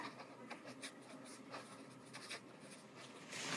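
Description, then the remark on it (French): Pen scratching across paper in short, uneven strokes as a secretary of state jots down a few ideas, fairly quiet, with a louder scrawl at the end; no one speaks. “La secrétaire d'État jette quelques idées sur le papier en prévision d'une tribune de soutien à Nicolas Hulot, apparaître dans le journal du dimanche.”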